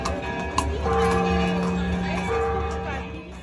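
Horse hooves clip-clop on a street in a Día de Muertos procession of Catrinas on horse-drawn carriages, the steady clopping set against sustained musical tones and a busy crowd murmur.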